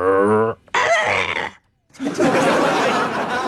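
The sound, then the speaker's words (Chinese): A person imitates a small dog barking: a short, pitched yelp followed by two loud, harsh, raspy bursts separated by a brief pause, with no ordinary speech. “原谅我学狗太像。”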